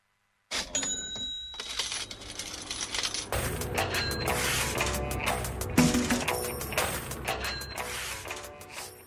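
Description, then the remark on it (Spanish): A cash register rings with bright metallic chimes, then a busy clatter of jingling coins and mechanical clicks fills the rest, loud with no voices. “ese sonido de dineritos quiere decir que del otro lado del telefonito está nuestro querido Fernando Spoliansky”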